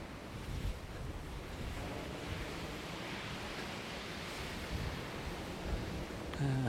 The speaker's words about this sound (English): Uh, they were right about that gale. I mean, if I had a hairdo to worry about, you know, I'd be running for home right now, but doesn't matter.